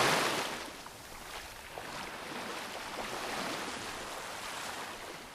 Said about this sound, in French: Je m'en remets à l'océan, au tumulte des vagues, à la joie des éléments.